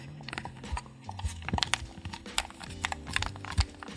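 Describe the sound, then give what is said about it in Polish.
Quiet creaking of a plastic game console controller (pad) being squeezed, a string of irregular small crackles and clicks over a faint low background hum. “Trzeszczy mi plastik.”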